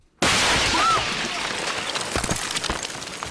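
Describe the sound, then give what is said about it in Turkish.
An Israeli tank fires on journalists filming behind a wall. The shell explodes abruptly, a sudden loud blast followed by a sustained roar of noise with scattered crackles and debris-like bursts. “Bir duvarın ardında çekim yaparken İsrail tankı hedef gözeterek ateş açtı. Kamera o anda kayıttaydı.”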